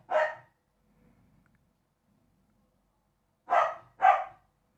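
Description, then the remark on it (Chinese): A dog barks three times: one sharp bark, a pause of about three seconds, then two quick barks in a row. The barks are loud and fairly high-pitched, with no talking. “狗叫什么呀？”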